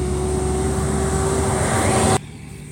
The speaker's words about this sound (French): toujours quand je veux faire des podcasts qu'il y a le plus gros camion de la Terre qui passe.